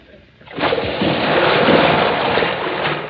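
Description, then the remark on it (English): A heavy belly-flop splash into water as a man falls off a high boat deck, loud, bursting in after a brief quiet and churning into a sustained rush of spraying, sloshing water that fades slightly at the end. “Mm, a belly flopper. Forgot to point his toes, I guess.”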